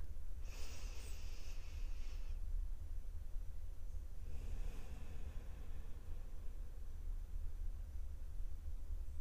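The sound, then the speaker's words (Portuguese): A slow, deep breath in followed by a long breath out, airy, with no talking, over a low steady background hum; a deliberate deep breath taken with eyes closed during a guided exercise. “Bom, agora gostaria de convidar você a fechar os olhos e vamos fazer uma respiração profunda.”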